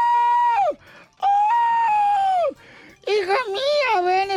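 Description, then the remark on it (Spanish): A voice imitates a woman screaming: two long, high, sustained wails that each fall off at the end, followed by a third shrill, wavering cry. Loud, with no other sounds. “Y la señora gritaba.”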